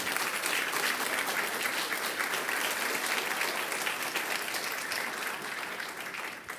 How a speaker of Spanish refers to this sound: déle ese fuerte aplauso.